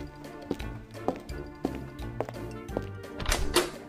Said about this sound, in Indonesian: Gue mau bukain pintu dulu.